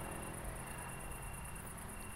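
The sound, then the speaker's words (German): Crickets chirp steadily outdoors, a continuous pulsing high-pitched trill with a soft background hum and no voices. “Mit den Grillen.”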